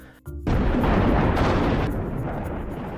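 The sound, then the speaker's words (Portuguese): A loud explosive crash bursts in suddenly amid many lightning bolts before any rain, then rolls on as a heavy, rumbling roar that slowly fades over a few seconds. It is powerful, and no voices are heard. “Assim, cada vez que as suas espadas se tocam, faz um grande barulho de explosão.”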